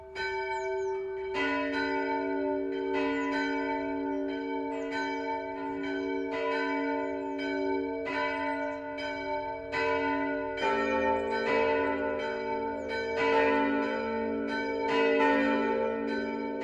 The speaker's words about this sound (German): BR Heimat, 12 Uhr läuten. Es ist 12 Uhr. Das Mittagsläuten kommt heute von der evangelischen Michaelskirche im mittelfränkischen Narasch.